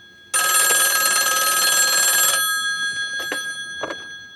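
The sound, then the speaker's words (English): An old-fashioned heavy mechanical telephone bell, in a scene from the film No Country for Old Men, rings loudly for about two seconds, a dense metallic trill, then fades into a lingering hum with a couple of faint clicks. “Again, old school heavy phone.”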